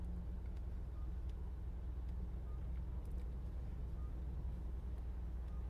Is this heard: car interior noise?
yes